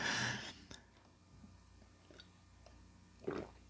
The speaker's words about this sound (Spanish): Te lo digo justamente ahora después de darle un trago a mi café.